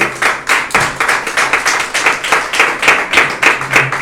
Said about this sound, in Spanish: De la ofrenda de palmas al Señor.